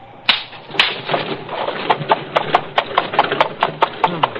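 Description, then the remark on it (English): Horse hooves clop steadily on a hard surface as a carriage pulls away after its driver drops off passengers and luggage at an old stone castle, a brisk rhythmic beat of sharp knocks over a low rumble of wheels. “You'd think the devil was after him the way he drove off.”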